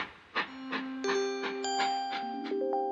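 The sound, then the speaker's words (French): At Nice railway station, jerky, rhythmic machinery pulses, believed to be an arriving train, chug steadily at a distance, about three bursts per second, while sustained ringing tones layer in one after another. No one speaks. “D'ailleurs, j'entends un bruit saccadé de machinerie au loin.”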